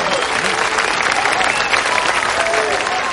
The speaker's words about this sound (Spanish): ¡Hey! No hace falta que aplaudáis cada vez, pero muchas gracias.